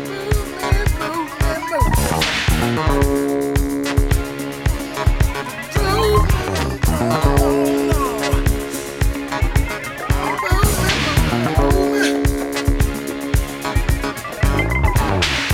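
An upbeat soul-disco track by a duo plays loud and continuously on a radio station's Dance Classics programme, driven by a steady pulsing beat and punchy bass under bright, layered instrumentation.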